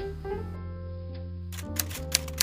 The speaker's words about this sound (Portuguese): No seu escritório decadente, Jack Malone datilografa a história, seus pensamentos fazendo o papel de narrador.